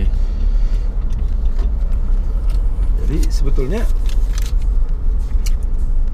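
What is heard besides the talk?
car driving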